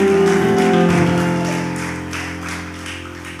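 An audience claps loudly for God in a steady rhythm over sustained, held musical tones, the clapping and music easing slightly toward the end.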